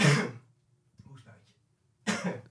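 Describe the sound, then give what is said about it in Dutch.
A person coughs hard in two loud bursts separated by a brief pause with a faint murmur of voice, like the tail end of a coughing fit. “Die ja, geëmotioneerd inderdaad, in combinatie met een hoestbui.”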